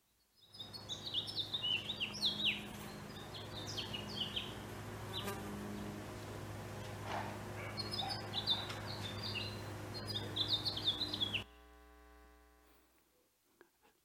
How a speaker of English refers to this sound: you're sitting next to me on my back deck, and I want you to hear the song of a house finch.